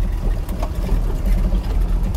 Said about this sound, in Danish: Og jeg er ude i min bil lige nu og kører rundt og øh, min bil har faktisk også været min, mit kontor, mit frokoststue, mit omklædningsrum, you name it.